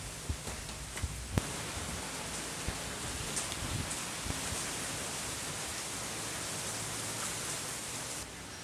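Steady, dense rain hiss fills the space evenly, with a few sharper drip-like ticks early on, then continues as a constant wash with no voices.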